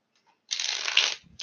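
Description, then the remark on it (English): A Tarot Nouveau deck of tarot cards being shuffled: a crisp riffle, one dense burst lasting under a second, then a brief pause before another shuffle starts. No one speaks. “I am shuffling the Tarot Nouveau.”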